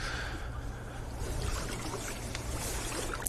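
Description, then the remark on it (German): A person ice swimming in cold lake water swims away from the shore and once around a tree jutting halfway into the water, producing a steady, continuous wash of splashing and churning water over a low background rumble, without any talking. “Eine muntere kleine Forelle entfernt er sich vom Ufer, schwimmt einmal um einen Baum herum, der hier so halb ins Wasser ragt.”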